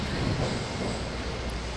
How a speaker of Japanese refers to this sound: ゴーってゴーって地下鉄入ってきちゃったけどさ聞こえるかな私の声聞こえてるのかな